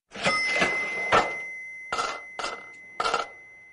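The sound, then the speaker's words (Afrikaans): A cash register rings with a bright, sustained bell over mechanical clatter, followed by three short, sharp rings in quick succession. Loud, with no voices. “En hier is die kasregister.”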